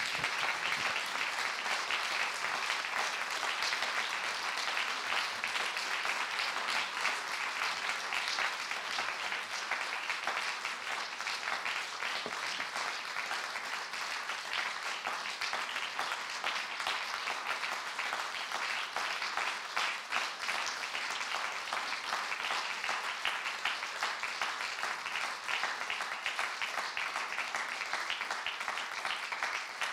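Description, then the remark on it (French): Sustained audience applause before closing remarks, a dense, steady wash of many hands clapping that holds at an even level for the full half minute without pauses or voices. “On applaudit avant le petit mot.”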